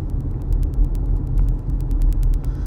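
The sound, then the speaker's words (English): A car engine idles in rush hour traffic with a steady low rumble, punctuated by faint rhythmic ticking, like a turn signal clicking at an even pace, while the driver lets about 10 cars pass. No one speaks. “I've let about 10 cars pass, and I know I'm not going to go any further, but.”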